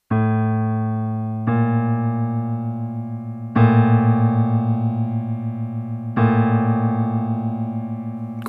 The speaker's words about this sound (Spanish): La segunda menor suena así.